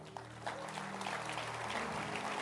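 An audience claps, a dense, steady patter of many hands that swells in after a brief pause and continues evenly, with a low sustained hum underneath.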